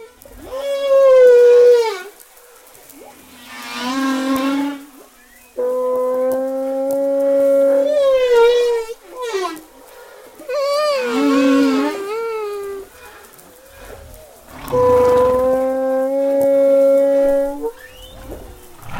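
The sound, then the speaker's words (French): A human voice imitates humpback whale song: a series of loud, sustained moans and wavering whoops that swoop up and down in pitch, in several phrases separated by short pauses. “Mais oui, je peux le faire pour l'oreille humaine.”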